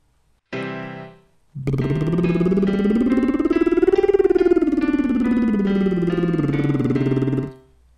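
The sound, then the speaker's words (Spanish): A brief piano-like note sounds, then a steady, buzzing voiced lip trill, made with index fingers pressed on the cheeks while blowing like a horse with voice added, glides smoothly up in pitch and back down, sustained for about six seconds, fairly loud, with no talking. “Para hacerlo, si no lo has hecho nunca, tienes que poner tus dedos índices en las mejillas, apretar un poquito y soplar como un caballo, pero añadiendo sonido.”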